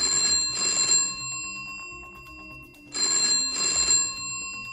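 An old-fashioned analog telephone bell, struck by a hammer driven by two electromagnets on a 90-volt alternating current, rings in two bursts, each a rapid metallic double trill, separated by about two seconds of quiet. The bright, clanging rings sound loud and alone, with no talking.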